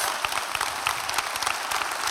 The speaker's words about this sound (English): a round of applause because you're clapping for God because none of us would be here anyway if it was not for God.